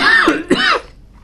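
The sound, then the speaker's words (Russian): A teacher gives two quick, harsh coughs, throaty and clearing, followed by a brief quiet tail; no talking. “Да, неприятно, когда учитель кашляет, но всякое бывает, как раз случается всякое.”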